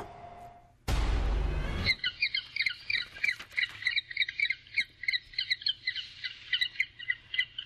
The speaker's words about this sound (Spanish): Bueno, pues nuestra historia sonora de hoy tiene que ver, estamos escuchando pingüinos. Ahí están. Eh, el Acuario Shed en Chicago permitió a sus pingüinos pasearse y encontrarse con otros animales para, pues, para matar el aburrimiento